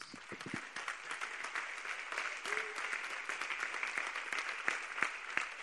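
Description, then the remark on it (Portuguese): A crowd applauds steadily, a dense, even wash of many hands clapping at a moderate level, with a few sharper individual claps standing out and faint voices mixed in; the applause is given in gratitude to God. “Vamos dar um aplauso de gratidão a Deus.”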